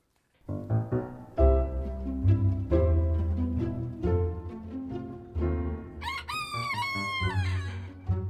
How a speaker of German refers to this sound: In der Nachbarschaft krähen die Hähne und lassen ihr Kikeriki weithin erschallen.